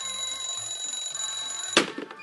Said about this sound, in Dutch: Tip 1. Zorg voor het slapen gaan dat de wekker van uw wederhelft een half uur eerder staat dan het tijdstip waarop u zelf uit de veren moet.